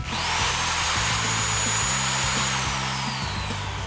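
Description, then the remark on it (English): A power tool whirs steadily, its motor humming with a broad, loud high-pitched whine and a low rumbling drone that pulses slightly throughout, with no voices present. “He's got some tools.”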